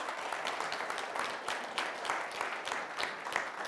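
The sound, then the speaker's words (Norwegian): A crowd in Porsgrunn claps steadily and continuously for a group of musicians, a dense patter of many hands at moderate loudness with no voices standing out. “Altså, det, jeg syns dere skal ha en applaus.”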